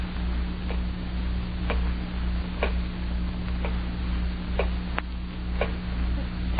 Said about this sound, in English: Terrible clock. Ticking. Ticking. Yeah, I know. I've been sitting here listening to it. I can't stand it anymore. I'll stop it.